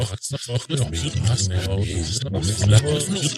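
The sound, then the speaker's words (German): Speech from a test recording loaded into a granular synthesis app, with its sliders being adjusted, chopped and smeared into a dense, warbling stream of voice fragments. It runs continuously and fairly loud, with no intelligible words coming through. “Ich habe da mal unseren Probe-Podcast reingeladen in diesen Fluss und habe da mal so ein bisschen an den Reglern gespielt und da kommen dann solche Geschichten bei raus.”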